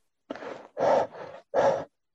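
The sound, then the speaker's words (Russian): Heavy, rapid panting with the mouth wide open and the tongue out: four loud, breathy in-and-out gasps in quick rhythm, with no talking. “Вот попытайтесь, раскрыв рот, высунув язык, очень активно, сильно подышать.”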